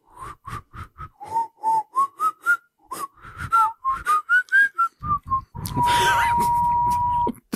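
Someone whistles a lively tune of short, clear notes that climb and dip in pitch, then holds one long, breathy, steady note to finish.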